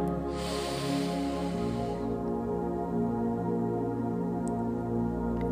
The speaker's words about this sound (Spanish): Vamos a comenzar conectando con nosotros mismos, con nuestro cuerpo, con nuestra respiración. Inhala.